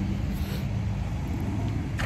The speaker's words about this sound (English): Today's lawn day, by the way. So, like, you podcasters know this is like my loudest day. It's Tuesday. I got weed eaters and blowers everywhere. Garbage trucks coming around the corner.